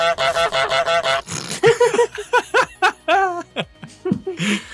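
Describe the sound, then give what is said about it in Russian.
A goose honks several times in short, nasal, uneven, loud bursts, with bursts of laughter mixed in around the calls. “Это прозвучало особенно круто, потому что у тебя заикнулся звук, а потом прозвучал гусь.”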